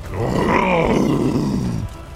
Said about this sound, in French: Relorx se redresse. Il est toujours sur le bateau de rubis. Il hurle de douleur et de frustration.